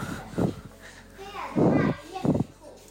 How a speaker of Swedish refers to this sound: Men det är en solig dag. Jag tittar just nu på skolbarnen som leker där ute.